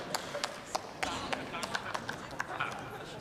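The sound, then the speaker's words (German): Scattered applause in a parliament chamber: a handful of sharp claps at a steady, moderate pace over a low murmur of voices, fairly soft overall. “Gut, das ist dann wahrscheinlich mehr Beifall als die Durchführung.”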